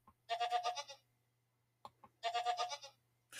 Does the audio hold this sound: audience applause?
no